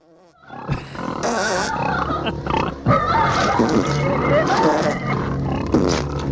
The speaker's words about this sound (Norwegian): Så jeg vet ikke, for det her kunne jo vært en suspensfull scene. Ja. Ja, ja. Men så eh, ødelegger de alt med å legge på de prompelydene her.